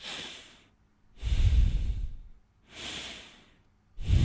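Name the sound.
breathing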